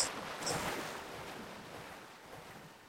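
Water in a virtual world splashes in two quick bursts near the start, then settles into a steady, soft wash of moving water that slowly fades. No voices are present.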